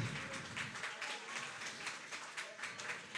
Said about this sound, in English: Round of applause, team number one. Only one's able to get that one.